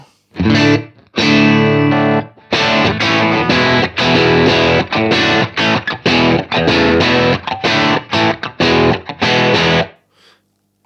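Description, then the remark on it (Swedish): A distorted electric guitar plays a string of chords and short riffs through an amp, with the volume set at 12 o'clock on both controls, loud, with a roomy reverb tail added and ringing out between the stabs and at the end. “prova bara och få på lite rum här?”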